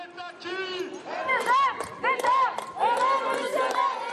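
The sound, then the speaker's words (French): A street protest crowd in France, on the ninth day of mobilisation, shouts together, many voices rising in loud, rhythmic chanting waves, with layered yelling and dense vocal overlap throughout. “Et dans la foule, des nouveaux visages, plus jeunes.”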